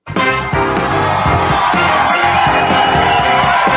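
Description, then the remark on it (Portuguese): A canned applause sound effect played by a show host as a fake audience for the participants: a dense, steady wash of crowd clapping with some cheering mixed in, starting abruptly and holding at a loud, even level throughout, with no one talking over it. “Deixa, deixa, eu, deixa eu botar um aplauso para vocês.”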